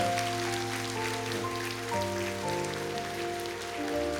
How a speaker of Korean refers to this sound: 우리 특별히 어, 장애인 부서를 위해서 열심히 섬겨주시는 우리 목자님들, 마을장님들, 또 모든 스탭들, 또 복지재단에서 일하시는 분들, 또 사역자들, 우리 교육자들을 위해서 우리 감사하는 마음으로 우리 격려의 박수합니다.